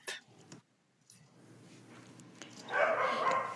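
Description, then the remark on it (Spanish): Several dogs bark, starting with a sharp yelp and building into a louder, overlapping chorus of barking toward the end. “Ay, perdón, no, perros, perdón.”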